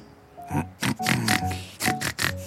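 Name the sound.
pig grunting and oinking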